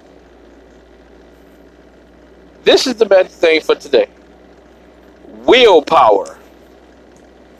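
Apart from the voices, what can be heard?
car engine running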